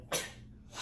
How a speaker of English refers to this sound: Ooh, bless you with a bang, bro. That sneeze was so cute. like you just let out a little poot or something.